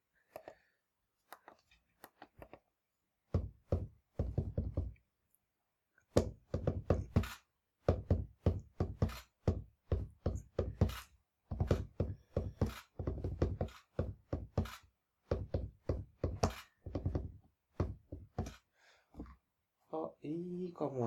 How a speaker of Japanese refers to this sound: キック音が思ったよりちっちゃいのかななんだここは。